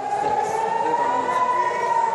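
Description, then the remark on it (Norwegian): An air raid siren in Israel, sounding at regular intervals during rocket attacks from Gaza, gives a loud, sustained tone that holds a steady mid-high pitch and creeps slightly upward, droning without a break. No one speaks over it. “Her går flyalarmen nå med jevne mellomrom.”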